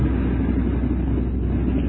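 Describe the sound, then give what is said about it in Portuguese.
An approaching train rumbles steadily, a continuous low, heavy drone holding an even loudness throughout, with no voices over it. “Então vamos agora, olha o trem, a luzinha do trem, ele vem se aproximando.”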